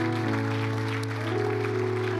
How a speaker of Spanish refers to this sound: Dale un fuerte aplauso al Señor, a nuestro Dios.